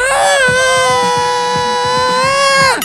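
Hard rock song intro: a single loud, high wailing vocal note held steadily for nearly three seconds over a fast, chugging low riff that pulses in a steady rhythm underneath.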